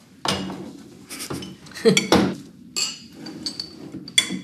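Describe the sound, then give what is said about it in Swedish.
Glasses and a large metal bottle opener clink and clatter on a table in a series of sharp handling knocks, some bright ringing taps among duller thuds, with no one speaking. “Ja, tackar glas och en öppnare.”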